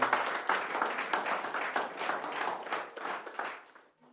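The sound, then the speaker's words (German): A crowd applauds God with steady, dense clapping for about four seconds, the many overlapping claps forming a continuous patter that fades out toward the end. “Und euch möchte ich bitten, gebt Gott einfach mal einen Applaus und steht auf zum Gebet.”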